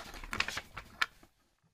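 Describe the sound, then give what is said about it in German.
Quiet scratching of a pencil moving across paper in a few quick, uneven strokes, with two sharper scrapes, then stopping into near silence. “Ja, dann mache ich es halt trotzdem mit, mit dem Bleistift.”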